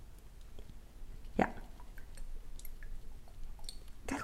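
Sesame oil dripping from a dispenser bottle as a small amount is added: a few faint, sparse, quiet wet ticks and small squishy drops, with a slightly sharper drop near the middle and another at the end.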